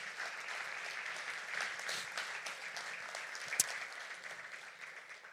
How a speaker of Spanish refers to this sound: ¿Cuántos reclaman esa palabra y la creen conmigo? Dale un aplauso al Señor si tú la crees.